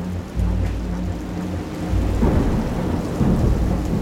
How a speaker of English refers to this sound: Now I looked around and the thunder started booming and the lightning was flashing and I simply had to have shelter.